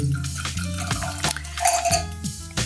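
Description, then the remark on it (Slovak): Young Moravian Muscat wine glugs and trickles as it is poured into glasses, with light glassy clinks and splashes, fairly quiet, with no talking. “Tak nalejeme si pre...”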